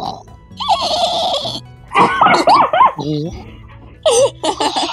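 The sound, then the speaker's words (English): A voice imitates a Minecraft dolphin with squeaky, warbling chirps and clicks in rapid high-pitched bursts, broken by short pauses, sounding almost like giggling, while role-playing Minecraft animal noises during a horse ride. “I do a dolphin noise.”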